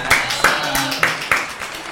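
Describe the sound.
Scattered applause from a small group on a show, welcoming a guest's companion who is behind the cameras: a handful of sharp, uneven claps over about two seconds, moderately loud, with a faint murmur of voices underneath.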